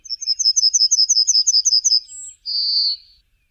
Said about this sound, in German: Die Goldammer soll Meister Beethoven ihren markanten Gesang im Wiener Prater zugetrellert haben.